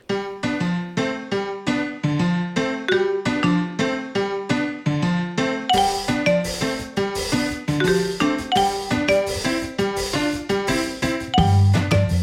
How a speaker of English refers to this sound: Let's just play the theme music.